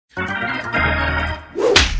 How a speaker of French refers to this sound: C'est le moment de la claque.